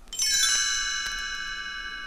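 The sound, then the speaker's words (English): A bright cluster of chimes rings out once as a page-turn cue for a read-along storybook, then its shimmering tones hang and slowly fade for about two seconds. No voices or other sounds accompany it. “You will know it is time to turn the page when you hear the chimes ring like this.”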